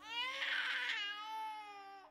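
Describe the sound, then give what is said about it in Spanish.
A baby cries in one long, strained wail lasting about two seconds, loud, the pitch wavering slightly before the cry tapers off. No one speaks. “En nuestras vidas, el llanto es previo a las lágrimas.”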